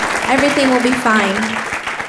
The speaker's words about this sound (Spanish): Dele ese fuerte aplauso, por favor.